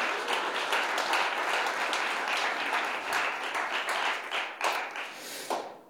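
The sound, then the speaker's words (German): A crowd applauds steadily for several seconds for the Royal Rangers and Sunday Kids children's workers, a dense wash of many hands clapping at once, loud, tapering off toward the end with a few last scattered claps. “Ja, lass es mal einen Applaus geben.”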